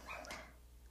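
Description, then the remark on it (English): A single brief, faint bark from a dog communicating with other dogs, fading out quickly into quiet with a low background hum. “Oh, my dog is communicating with the other doggos.”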